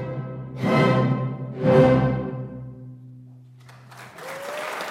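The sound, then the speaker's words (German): In a concert hall with concrete walls, an orchestra plays two loud chords and a held note fades, then a large audience bursts into applause for the final second, a dense clapping wash that is only just beginning. “Am Ende euphorische Begeisterung für ein Konzert der Superlative.”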